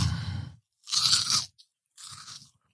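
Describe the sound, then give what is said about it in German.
Three crisp crunching bursts of someone biting and chewing crunchy food, each lasting about half a second with short pauses between, loud and dry with no talking. “Richtig wie so eine Hanuta-Werbung. Nee, also besser, besser. Der neue Hanuta Crunch.”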